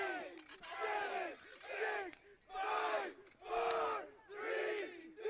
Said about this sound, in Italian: Sentii solo un conto alla rovescia.